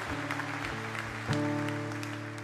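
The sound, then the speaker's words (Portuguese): An audience applauds the Lord, many hands clapping steadily in a dense crackling wash, while sustained keyboard chords hold underneath and swell slightly midway. “Quem pode aplaudir o Senhor?”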